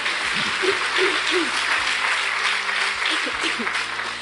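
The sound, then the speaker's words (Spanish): A church audience applauds steadily at the preacher's call for a good round of applause, a dense wash of many hands clapping at an even loudness throughout, with a few faint voices calling out underneath. “Dele un buen aplauso, porque una eternidad con Cristo nos espera.”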